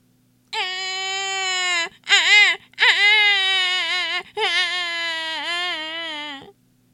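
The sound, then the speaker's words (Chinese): A baby who has rolled off a bed and ended up underneath it cries in loud, high-pitched wails: a long sustained cry, a short broken sob, then two more drawn-out wails with wavering pitch. No talking is heard over it. “床底下也有个小声音开始哭起来。原来呀，宝宝从床上滚了下来，又滚到了床底下。”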